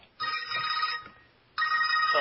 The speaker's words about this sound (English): Is that, is that is that your pizza confirmation call? Yep, that's the bat phone. The bat phone. He's got a special phone for the pizza guy.